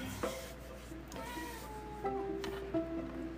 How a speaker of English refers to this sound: If you guys hear it in the background, that's Indy. That's my kitty.